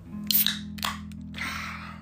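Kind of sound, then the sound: food or drink, beer being opened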